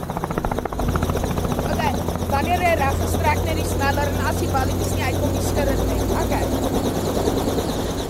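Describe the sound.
A helicopter's engine and rotor drone steadily and loudly, a constant low throbbing roar, with voices speaking over the noise, during a flight over a farm where the animals are given medicine, with a 16-year-old on her first helicopter ride aboard.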